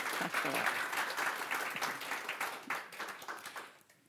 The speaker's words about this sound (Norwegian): Gi en varm applaus til dem. Takk.